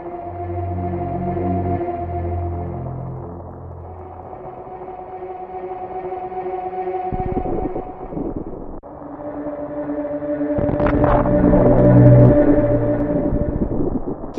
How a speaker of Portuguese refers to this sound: que tá no planeta Zebes, a forma que, é, que eles conseguiram colocar o clima, mano, na música, aqueles barulho meio de tipo tem um granizo caindo, aqueles efeitos sonoros tipo de umas pedras.